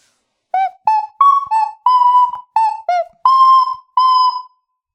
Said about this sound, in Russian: музыкальный инструмент Акарина Псковского мастера. А, пять отверстий.